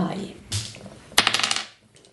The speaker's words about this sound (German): Ich habe 2. äh, ihr habt eine 3, heißt, ihr müsst bitte mal, mal neu würfeln.